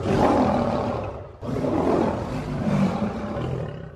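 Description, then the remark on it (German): A lion roars twice in quick succession, loud, each roar a deep, rough, sustained bellow with a brief break between them and no voices. “Gut gebrüllt, Löwe.”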